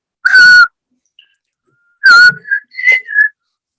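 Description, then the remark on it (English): Someone whistles a short, clear tune: two breathy sustained notes separated by a pause, then a quick run of three shorter notes at slightly higher pitch. No one speaks. “Okay, not let's not whistle because that actually doesn't come out well in on the microphones.”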